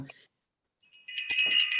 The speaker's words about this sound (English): Okay, let's ring the bell.